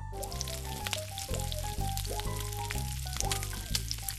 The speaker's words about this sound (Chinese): 乌拉拉热起油锅，酥炸马铃薯块。